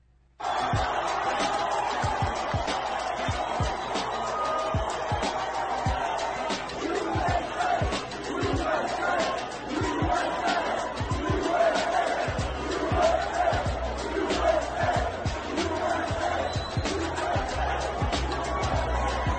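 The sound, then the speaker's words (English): A large crowd at a horse race cheers and roars continuously for nearly twenty seconds as President Trump is cheered, with scattered clapping and shouts popping through a dense, steady wall of voices. “We didn't see Melania, but uh, he was there and he got cheered.”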